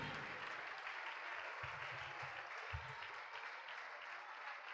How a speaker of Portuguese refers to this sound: Vamos aplaudir, igreja.